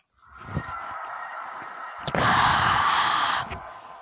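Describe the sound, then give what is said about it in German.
Muffled handling noise: a microphone gets knocked and repositioned, with a few dull thumps and a steady rough rustle that swells louder in the middle before settling. “Warte, ich richte Mikro neu aus.”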